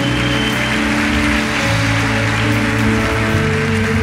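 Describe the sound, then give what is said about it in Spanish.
Sustained applause from a large church audience at a steady, loud level, given as applause to God, with a low musical drone holding underneath the dense clapping throughout. “Si lo cree, dale un aplauso fuerte a Dios acá.”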